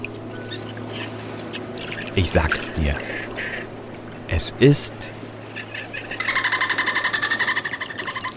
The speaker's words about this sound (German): der Delfin.